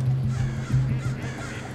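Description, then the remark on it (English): Harsh crow caws sound repeatedly over a steady low hum, fairly loud, with a few overlapping calls in quick succession, in a natural spot within the city in the East Bay, on a plane route about five miles from Oakland Airport. “We hear crows and geese and mallards, and then we hear planes right after them as well.”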